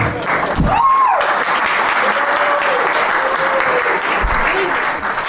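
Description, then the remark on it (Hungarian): An audience breaks into sustained applause for a young man in the audience, a dense, steady wash of clapping that holds at an even level throughout, with a few faint whoops and vocal sounds rising over it. “Tapsoljuk meg a fiatalember.”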